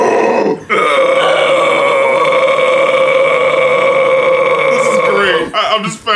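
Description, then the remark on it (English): A single long, harsh death metal growl held for about four and a half seconds, loud, with brief breathy sounds before and after. “Death Growling Tutorial”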